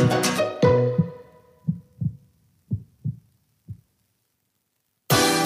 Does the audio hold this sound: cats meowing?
no